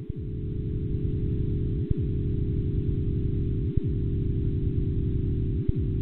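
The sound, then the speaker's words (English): A computer-synthesized rendering of Big Bang sound waves measured by a NASA satellite and shifted far up in frequency to be audible: a deep, steady electronic hum, thick with low tones, that briefly dips about every two seconds, with no voices. “You're hearing uh, frequency shifted sound waves uh, from the Big Bang that were measured uh, by a NASA satellite, moved very far up in frequency so that the human ear can hear them.”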